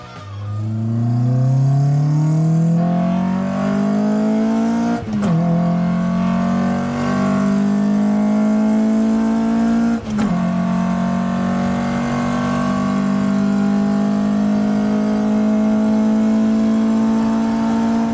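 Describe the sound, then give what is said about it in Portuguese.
A Honda H22 VTEC 2.2-litre four-cylinder engine from a fourth-generation Honda Prelude revs hard and climbs steadily in pitch, with two brief breaks like gear shifts, then holds a loud, sustained high drone. No talking. “vocês ouviram é um 4 cilindros 2.2, conhecido como H22 VTEC do Honda Prelude de quarta geração.”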